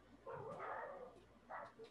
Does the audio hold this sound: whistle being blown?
no